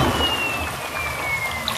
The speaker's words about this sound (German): Das Wasser spritzt nur noch.